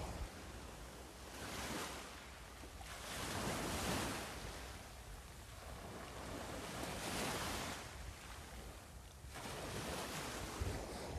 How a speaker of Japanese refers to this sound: はい今日は久しぶりに海に来ています波の音聞こえますでしょうか